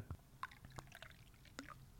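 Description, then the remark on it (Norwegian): Bulmers cider is poured quietly into a glass, a soft liquid trickle sprinkled with little popping, fizzing bubbles and a few faint clinks over about two seconds. “Så da skal du få et glass med Bulmers her.”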